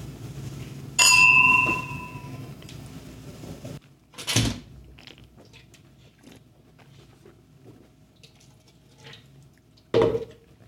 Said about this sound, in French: On trinque